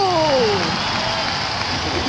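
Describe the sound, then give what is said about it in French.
An audience applauds the candidate who will sing for Agrada, in a dense, steady wash of clapping that holds at an even level throughout, with a short falling whistle-like tone near the start. “Et maintenant en exclusivité pour vision, applaudissons le candidat qui chantera pour Agrada ce soir”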